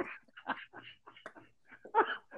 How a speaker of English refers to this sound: Uh oh. Oh shit. Is that a damn dog?